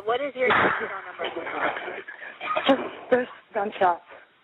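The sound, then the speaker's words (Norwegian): A single sharp gunshot cracks out midway through a muffled, phone-quality recording of a woman's call to the police emergency number, with her voice talking and screams for help from outside her house heard in the background before it; the screams stop after the shot. “Det lyder et skudd, og skrikene slutter.”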